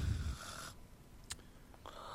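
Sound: person snoring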